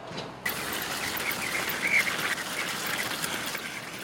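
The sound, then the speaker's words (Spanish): A fragile metal cart carrying suitcases and bags is pushed along, rolling with a steady clattering rumble while its broken plastic wheel gives off short, high, duck-like squeaks, the loudest one about midway through. No one speaks. “Una de las ruedas de plástico del carrito estaba rota.”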